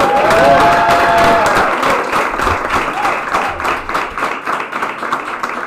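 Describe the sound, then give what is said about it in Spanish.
An audience at a hotel in Valencia, Spain applauds steadily, dense overlapping claps with a few whistles and cheers rising over it, loud and sustained before gradually thinning out. “Un aplauso, señores, para el Hotel Garden.”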